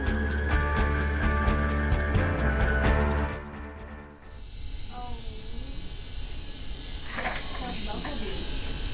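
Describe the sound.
A tattoo machine buzzes with a steady, pulsing electric drone as a tattoo of a black flower with green leaves is drawn on a young woman's skin, then drops to a softer, hissing whir while faint voices murmur underneath.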